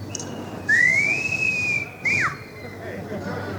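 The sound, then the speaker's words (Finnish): Someone whistles an imitation of a barn swallow call: one long, clear tone that rises and gently falls, then a quick, short downward-sliding chirp, over a low background hum. “Siinä edessä seuraavaksi omistettu harrapääsky.”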